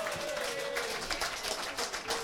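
A crowd applauds steadily and fairly loudly, a dense wash of clapping throughout, with a faint sustained tone lingering underneath.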